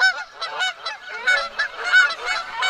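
A flock of geese honks all at once in a dense, overlapping chorus of nasal, mid-pitched calls, swelling and dipping in loudness without pause. No one speaks.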